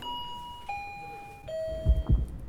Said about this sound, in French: Une petite épicerie à l'écart de la ville. J'y suis, ça y est. J'ouvre la porte.